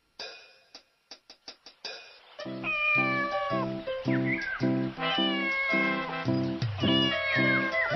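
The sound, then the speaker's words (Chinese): A small bell worn on a cat's neck gives several quick, bright jingles as the cat walks, then the cat meows repeatedly in rising and falling cries over a steady, pulsing low rhythm that stays loud to the end. “脖子上戴了一个小铃铛，走起路来铃铛就会叮铃叮铃的响。”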